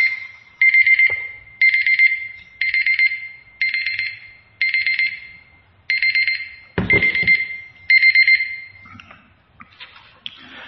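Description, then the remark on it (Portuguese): A timer alarm beeps insistently in a steady train of short, bright, loud bursts, roughly one per second, with a dull thump near the end and no talking. “Tá louco como perturba esse uh, relógio? Não, temporizador.”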